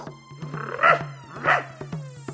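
Dogs, all let off their chains by their master, bark twice, two sharp, fairly loud barks about half a second apart, over a steady low hum and faint intermittent tapping.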